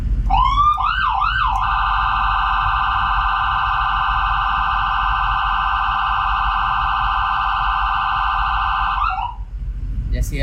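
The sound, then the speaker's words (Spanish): A loud, piercing ambulance siren, a crowd-dispersal tone meant to make people move away from an accident scene, opens with a few quick rising whoops, then holds one shrill, unbroken tone for about seven seconds before cutting off, over a steady low rumble. “Entonces es un dispersor también de las personas, eh, hace una, un sonido bastante estridente que hace que las personas se retiren o se alejen del lugar del accidente.”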